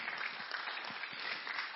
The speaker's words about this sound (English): So give yourselves a little round of applause for allowing us to come.